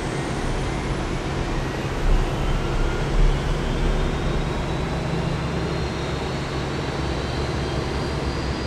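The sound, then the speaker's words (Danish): The engines of a Yugoslav plane in Sweden roar steadily and loudly as the captain starts them, a high whine slowly climbing in pitch as they spool up beneath a dense rumbling wash of noise, with no voices. “Kaptajn Popov bliver rasende og tænder for flymotorerne.”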